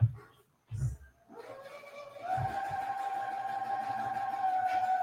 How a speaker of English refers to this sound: Is that a uh, at home centrifuge? No, that is my wife's sewing machine.